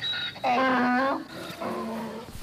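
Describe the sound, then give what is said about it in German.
A donkey brays, a loud, strained two-part call with a long rising note followed by a shorter, lower one, with no voices heard. It is one of three donkeys kept there. “Wir haben äh, Esel. Nee. Doch, sogar drei.”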